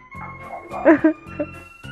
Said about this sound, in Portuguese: Tô ouvindo até o cachorro.